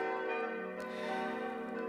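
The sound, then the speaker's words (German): Four church bells in the Julius Echter style tower of the church in Markt Steinach, three Perner bells from Passau added in 2001 and one from 1873, ring together in a loud, continuous overlapping peal with a dense, shimmering tone, with no voices. “Wie bei Julius Echter Türmen üblich, strahlt auch die Markt Steinacher eine gewisse Stämmigkeit aus, der man mindestens vier Glocken zutraut.”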